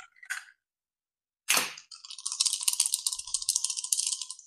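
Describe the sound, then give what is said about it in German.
Dice give a brief clack, then a sharp knock, then a busy, continuous rattle as they tumble and roll for a few seconds, fairly loud, with no voices. “Wir hören die Würfel.”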